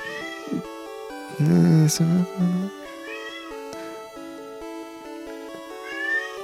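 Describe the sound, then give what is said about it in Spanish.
A pet cat down below lets out a loud, drawn-out meow followed by a shorter second cry, over a steady hum of background music. “Ah, oh, mi gato está así echando pico aquí abajo.”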